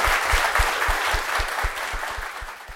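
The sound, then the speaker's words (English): An audience applauds steadily to thank a panel at an ACMI talk, with dense overlapping claps at a consistent, fairly loud level and no voices heard. “Um, and if you all just like to join me in thanking the panel one last time.”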